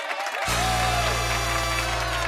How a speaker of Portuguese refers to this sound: Uma salva de palmas para eles!